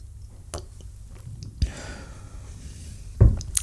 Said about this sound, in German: ich nehme einen Schluck Wasser und dann fangen wir gleich an.